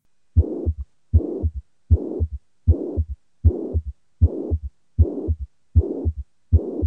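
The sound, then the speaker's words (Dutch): A heart murmur of mitral valve regurgitation (mitral insufficiency): nine steady beats, each a low thump followed by a harsh, blowing whoosh, repeating evenly with no talking. “Mitralisklep insufficiëntie.”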